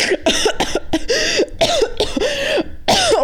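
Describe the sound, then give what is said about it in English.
A person gags and coughs on their own spit, a run of harsh, choking bursts with strained, voiced gasps in between, loud with no talking. “that was the sound of me gagging on my own spit.”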